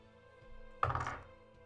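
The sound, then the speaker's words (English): A die is rolled onto a table for a perception check, landing with a sharp thunk, followed by a quick, faint clatter as it tumbles and settles in under half a second. No one speaks. “I'm going to switch dice. This one's being bad.”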